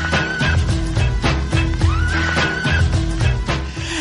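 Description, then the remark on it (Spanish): A loud, upbeat radio intro jingle loop from a pack of radio intros, with a steady pounding drum beat and a bright lead tone that swoops upward, playing alone without any voices. “Es que tenemos un pack de, loops, intros para radio y los estamos poniendo así, practicando un poquito para, darle un poquito de un no sé, un toque un poquito más profesional”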